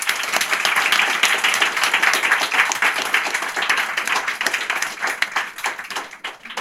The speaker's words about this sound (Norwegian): Jeg tror vi skal bare gi en applaus for alle først.